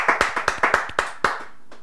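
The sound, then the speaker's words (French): A group in a studio claps hands in praise of the name of the Lord, an uneven, lively rhythm of about eight sharp, loud claps in quick succession, then trailing off. “Acclamons très fort pour le nom du Seigneur.”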